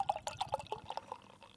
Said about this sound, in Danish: Jeg drikker MAS, MAZ, som er en non alcoholic oat pale ale fra svensk Omnipollo. Og øhm, jeg skal lige prøve at hælde noget op her.